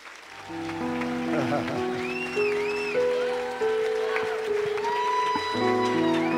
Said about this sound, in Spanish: Un aplauso, por favor.